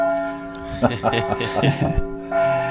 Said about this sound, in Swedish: Nej. hör ni eh, ljudet? Hör nu, ni kom ljudet? Den, nu kom den. Slutsignalen för Storchampionatet.